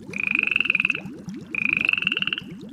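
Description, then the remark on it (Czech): A frog croaks in two long, rapid rattling bursts separated by a brief pause, each a buzzy pulsing trill with a steady high whine. Fairly loud, with no voices. “Jednoho dne královna plavala v bazénu, když v tom kousek od ní vyskočila robotická žába.”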